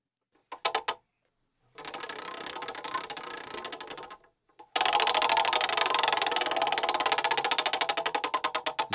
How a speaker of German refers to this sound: Aber als erstes würde ich sagen, drehen wir am Glücksrad. Äh, auch wenn ich es mal wieder nicht hören werde.